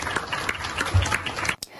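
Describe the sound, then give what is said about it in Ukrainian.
A crowd of Muscovites at a book fair applauds steadily after a speech, many hands clapping in a dense, continuous patter, then cutting off abruptly near the end. “Зверніть увагу, москвичі аплодують, і це вже інший зріст населення ніж майбутнє Росії, молоді підприємці.”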